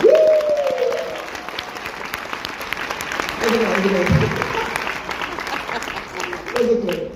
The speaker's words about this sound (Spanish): Denle un fuerte aplauso a los que no estuvieron porque se perdieron una super charla.